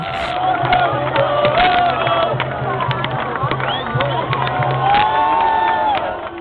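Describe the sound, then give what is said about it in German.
A large crowd cheers and roars continuously, a loud, dense wall of shouting voices with rising whoops, holding steady for the whole stretch. “Und mit dem Freudentaumel möchte ich mich dann auch verabschieden und hoffe, dass die Deutschen genauso brüllen am Dienstagabend, wenn wir dann nämlich Italien geschlagen haben.”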